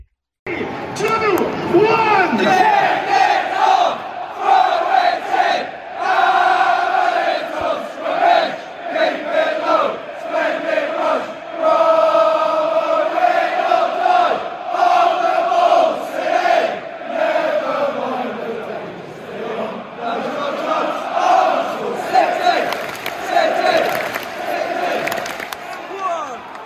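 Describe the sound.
A large crowd of Norwich City FC supporters sings the terrace chant "On the Ball, City", the world's oldest football chant, in unison, voices loud and sustained for the whole stretch, with the melody rising and falling in long drawn-out phrases.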